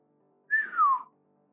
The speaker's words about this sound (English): … gave a slow whistle